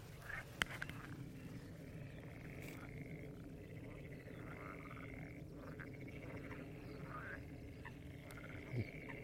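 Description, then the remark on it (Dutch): A chorus of frogs croaking continuously, many calls overlapping in a dense, pulsing rhythm, with no talking. “De kikkers die gaan er even Die, kikkers gaan los?”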